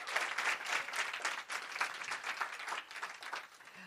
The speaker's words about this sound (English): Praise the Lord. Let's give Jesus a big clap offering. Hallelujah.